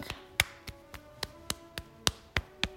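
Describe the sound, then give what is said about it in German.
Light, brisk tapping up the back of the right hand during a self-tapping exercise, about ten quick soft pats in a steady, slightly uneven rhythm, with no talking. “Über den Handrücken wieder nach oben klopfen.”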